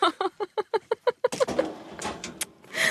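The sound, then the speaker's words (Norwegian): A drawer slides open with a quick run of evenly spaced clacks from its runners, followed by a scraping, rustling rush as it pulls fully out. “Han bor borti denne skuffen her.”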